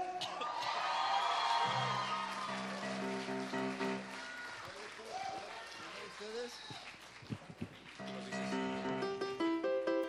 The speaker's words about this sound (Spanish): Un aplauso a usted.